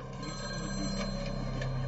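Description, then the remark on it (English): A telephone bell rings steadily for a couple of seconds, a continuous metallic trill, fairly quiet, with no one speaking; the call comes from a kidnapper less than an hour after a kidnapping. “Less than an hour after the kidnapping, the phone rang.”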